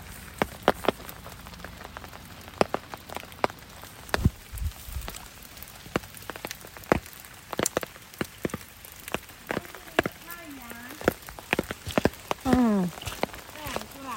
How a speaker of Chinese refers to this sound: 太阳雨咩？是不是叫太阳雨？ 它还不是很稳定的太阳， 一会儿有一会儿没有。